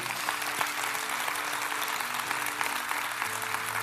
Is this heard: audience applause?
yes